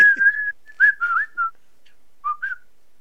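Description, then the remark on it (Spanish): A lone whistler whistles the march tune from the film The Bridge on the River Kwai: bright, jaunty short phrases, a long held note followed by quick bouncing notes, pausing briefly before a final two-note phrase. “Esa es la canción de la puente sobre el río Kwai.”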